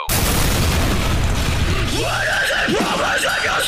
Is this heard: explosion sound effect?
yes